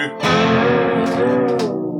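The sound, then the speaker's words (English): A loud, distorted electric guitar chord rings out steadily for two seconds, its pitch held under a tightly gripped tremolo bar, with a couple of brief scratchy string noises near the end. “Isn't that a nicer sound? Yeah, yeah, yeah, yeah. As opposed to.”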